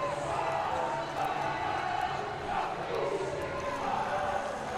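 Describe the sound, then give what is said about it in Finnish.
The French team shouts and cheers celebrating their three-set match win over Slovenia, dancing with hands on each other's shoulders in the middle of the court, a dense, continuous roar of many voices that holds steady and loud throughout, with no distinct speech standing out. “Sieltä kuuluu huuto sinne varmasti radio vastaanottamien äärelle.”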